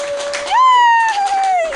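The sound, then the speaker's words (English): An audience claps steadily to vote for a contest winner while a loud, high whistle-like tone rises, holds and slowly slides downward over the applause for about a second. “Over here clapping.”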